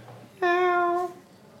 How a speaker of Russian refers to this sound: ну, мяу это хорошо или плохо? Это хорошо, котики это всегда вот, хорошо. хорошо, это прекрасно.